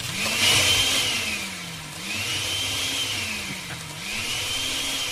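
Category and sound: household object, electric blender running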